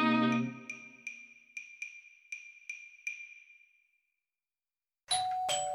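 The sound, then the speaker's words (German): A doorbell chime rings out as a food delivery from a favourite restaurant arrives, then its bright tone repeats about seven times in a quick, echoing rhythm that fades away. After a pause, another loud, harsh electronic chime bursts in. “Ah, der Klang, wenn die Leibspeise vom Lieblingsrestaurant ankommt.”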